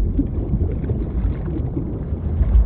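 A steady, dense wash of open-water noise with low rumbling and wind buffeting the microphone, like being out at sea on a boat, continuous and fairly loud with no voices.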